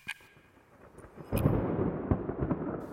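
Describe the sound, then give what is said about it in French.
Rolling thunder: a quiet start gives way to a deep, loud rumble that swells after a second or so and keeps rolling with sharper cracks to the end, with no voices. “Cependant, Jupiter m'avait vu il m'applaudit par un roulement de tonnerre à faire s'ébouler la grande moucherolle, le haut sommet voisin.”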